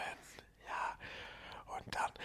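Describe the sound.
Soft, breathy whispering in a few short bursts with brief pauses, quiet and intimate in the style of ASMR, with no voiced speech.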